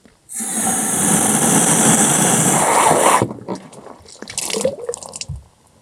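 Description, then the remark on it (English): Water gushes loudly and steadily into a water tank being filled, a fill that takes a little over three minutes, then cuts off with a little overflow, followed by softer splashing, trickling and a few clunks. “So we're going to fill the water.”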